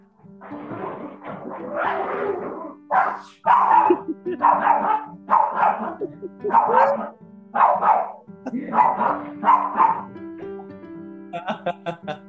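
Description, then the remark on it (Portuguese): Dogs bark in a rapid, repeated series of loud barks, roughly one or two per second, with a steady low hum in the background. “Os cachorros querem aparecer.”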